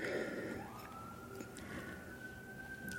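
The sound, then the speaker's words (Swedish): An emergency vehicle siren wails steadily over a dense city street rumble in Washington, holding a long sustained tone after an initial rise and blending with traffic noise. “Man hör verkligen Washington med eh, utryckningsfordon bakom Ja, jag bor, ju bredvid en, jag bor ju bredvid en brandstation och sen så bor jag på en gata där det är många polisbilar”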